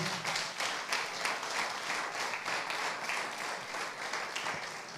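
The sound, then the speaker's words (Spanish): A large audience claps steadily, giving an offering of applause to the King, a dense, continuous patter of many hands going on for several seconds with no speech over it. “Hermano, la vida es corta, dele una ofrenda de palmas al rey.”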